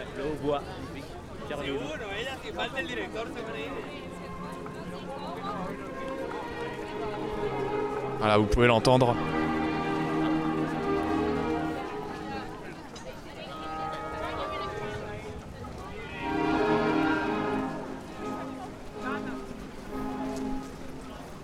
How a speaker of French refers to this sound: Et l'orchestre qui, dont le son s'approche aussi.